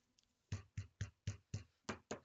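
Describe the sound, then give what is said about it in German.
A stack of papers is tapped against a table seven times in a quick, steady rhythm, each a dull thud with a papery edge, and no one speaks. “Ja, dann klopfe ich mal die Zettel.”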